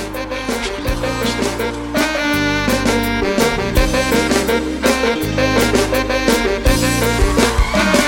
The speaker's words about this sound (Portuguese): Música da semana.